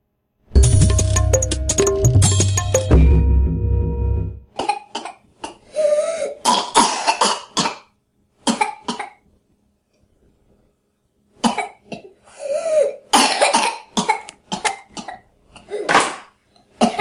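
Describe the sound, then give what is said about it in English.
A young girl with whooping cough has fits of rapid, harsh coughing, each run broken by strained, high-pitched whooping gasps for breath. It is loud, with a short burst of rumbling noise at the start. “I thought this was a news video, but this is uh, an actual young girl who is stuck with whooping cough.”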